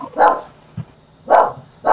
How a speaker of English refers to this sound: the dog is uh, going crazy. There's something going on on my front door.